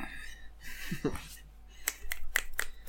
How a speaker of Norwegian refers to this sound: Kort applaus.